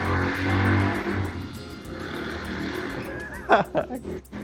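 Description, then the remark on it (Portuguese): A motorcycle engine, ridden at home, drones and revs, its pitch rising and falling, then a few sharp throttle blips burst out near the end. “tá pilotando a moto dele em casa.”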